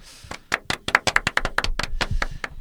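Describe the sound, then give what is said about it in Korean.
Around a dozen quick, sharp hand claps in an uneven, lively rhythm, crisp and moderately loud, with no talking over them, celebrating the news of joining the JTBC programme 이론상 완벽한 남자 (Theoretically Perfect Man) as a panel member. “박수 한번 칠까요?”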